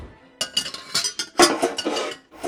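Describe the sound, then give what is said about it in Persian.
A medium-sized cooking pot, taken out to make abgoosht, a meat stew, is lifted and set down, clanking in a quick series of bright metallic knocks and scrapes against other cookware, with no talking. “یه قابلمه متوسط برمیداریم”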